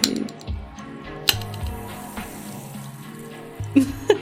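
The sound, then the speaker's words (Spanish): Lemon-lime soda pours steadily with a bubbly, fizzing wash, punctuated by a couple of sharp clinks near the start and end, fairly loud, with no one speaking. “Mucho burbujeo por el es día para que sientan la frescura del refresco”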